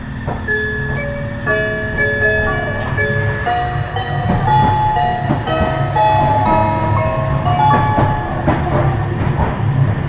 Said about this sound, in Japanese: 名古屋駅から、うん、中部国際空港まで行く名鉄電車の、うん、えー、チャイムとアナウンスです。はいはい、聞いてみてください。